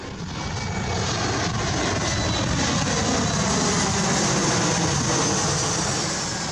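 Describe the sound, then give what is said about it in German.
A loud airplane roars low overhead in Merrickville, Sydney, Australia, directly under the airport's approach path, its broad engine rumble and hiss swelling in quickly and holding steady before beginning to fade. No voices are heard. “Nur sechs S-Bahn-Stationen bis in die City, direkt unter der Einflugschneise des Flughafens.”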